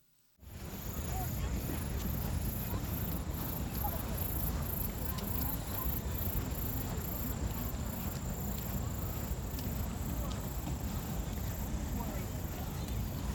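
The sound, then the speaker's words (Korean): A steady outdoor chorus of grass insects chirping in autumn, recorded in 2023: a high, continuous trill with faint rhythmic pulsing, over a soft low background hum. No one speaks; the sound stays even throughout. “개띠랑의 풀벌레 소리 들으면서 마무리하겠습니다”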